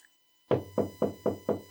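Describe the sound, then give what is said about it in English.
Six firm, evenly spaced knocks on a wooden door in a steady quick rhythm, fairly loud, after a brief silence, with no voices. “There's a knock.”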